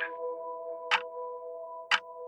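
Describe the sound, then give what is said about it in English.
A clock ticks twice, sharp, exactly one second apart, over a steady low electrical hum that runs the whole time. “He glances up at his clock.”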